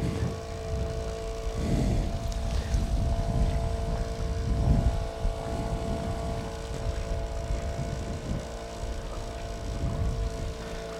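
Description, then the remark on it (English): A boat motor runs steadily throughout, a low rumbling drone with a few sustained tonal hums layered on top and slow swells in loudness, with no voices. “I wonder how this motor sound is going to turn up in the recording.”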